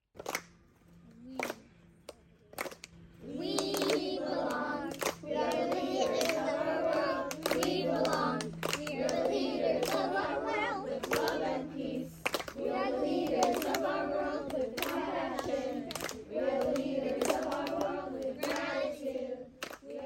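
A group of children at summer camp sings the Peace Academy song together in a steady, sustained chorus, with sharp hand claps and a few taps scattered through it, moderately loud.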